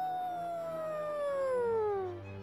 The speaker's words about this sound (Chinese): 正当大家揉揉头，野狼传来叫声：“嗷！”